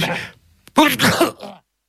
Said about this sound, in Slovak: Nič, neskoro, kýchol som.